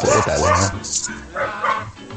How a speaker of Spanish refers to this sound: También nos acompaña un coro de, de perros. en el otro micrófono.